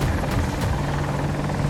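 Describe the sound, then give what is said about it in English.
A helicopter's steady rotor drone fills the air, a low, continuous thrumming with a faint rhythmic chop, fairly loud, with no voices over it. “And a chopper up ahead.”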